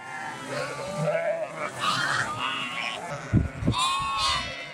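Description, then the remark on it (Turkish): A crowd of lambs and ewes in Tunceli bleat over one another in a dense, overlapping chorus of high wavering cries and deeper calls as nomads' lambs a few weeks old, kept apart from their mothers, are reunited with them when the doors open and run to suckle. “Günde sadece iki kez anneleriyle buluşturulan kuzular sabah ve akşam kapılar açılır açılmaz dışarıya”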